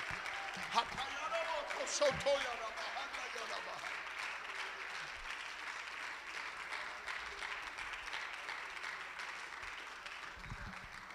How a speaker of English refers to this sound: Come on, clap your hands and worship Jesus in this house right now.